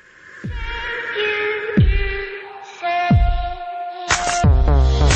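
Electronic pop song intro with deep, booming bass hits landing roughly every second and a half beneath sustained, shimmering synth chords, growing denser toward the end, with no vocals yet.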